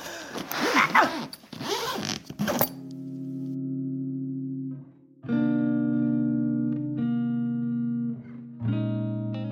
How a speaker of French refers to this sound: Bon, allez, je boucle ma valise. Hop.